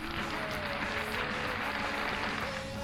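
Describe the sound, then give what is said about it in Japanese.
A steady wash of mechanical, canned applause sound effect, dense and continuous clapping with a faint tonal hum underneath, holding an even level for a few seconds with no one speaking. “今日もね機械的な拍手に迎えられて”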